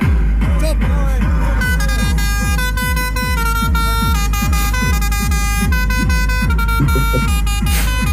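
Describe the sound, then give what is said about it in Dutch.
A loud, continuous blare of about 400 car horns honking together at a medal ceremony, overlapping tones of different pitches merging into a dense wall of sound, with a steady low rhythmic throb underneath throughout. “Moet je nagaan dat de 400 auto's allemaal de toeter je, hoe dat dan klinkt.”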